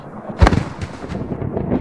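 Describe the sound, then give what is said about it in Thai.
A heavy sugar palm fruit, knocked down by a big storm, thuds onto the ground beneath the palm tree with one deep, loud impact, followed by a low, rumbling wash of windy noise that carries on after the hit. “เกิดพายุใหญ่ทำให้ลูกตาลหล่นลงมาที่พื้น เกือบจะถูกกระต่าย”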